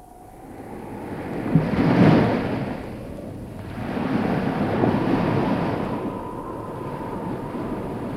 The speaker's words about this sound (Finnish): Näyttääpä olevan kerrassaan paha väylä. Vesi kohisee kuin pahemmassakin virrassa ja korallikallioiden huippuja pistää esiin aalloista vähän joka puolella.